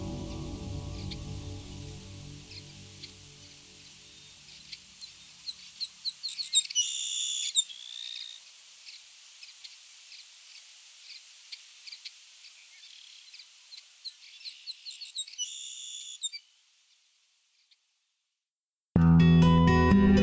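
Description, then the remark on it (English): A Savannah sparrow, a small brown sparrow of open grasslands, sings twice: high, thin songs of quick ticking notes leading into a buzzy trill. Softer scattered chips fill the gap, before a short silence and an abrupt louder sound at the end. “Named not for habitat, but for a specimen collected near Savannah, Georgia, this small brown sparrow of open grasslands has a high, thin singing voice that can sound like zit, zit, zit, zee, zay.”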